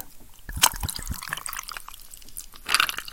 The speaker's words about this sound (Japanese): いや、またまた入れすぎたよ 音がいいもんだからさ、ジャボジャボ注いだらやりすぎたよ。あのね、前回入れすぎた時よりも、さらに入れちった。ジン。ジンを、めっちゃ入れちゃった。